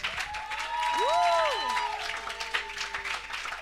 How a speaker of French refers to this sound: Ça, c'est pas acclamation. C'est applaudissements.